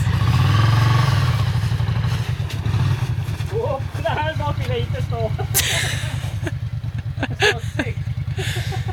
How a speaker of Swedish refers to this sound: det flyger snö och gräs. Måste jag informera om. Däcket går väldigt mycket fortare än vad motorcykeln går.